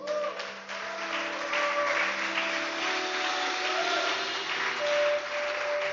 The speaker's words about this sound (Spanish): ¿Por qué no dan un aplauso a Dios allí?